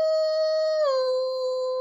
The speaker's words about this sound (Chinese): 狼呢的英文是 wolf。好，狼就会嗷呜这样叫，对不对？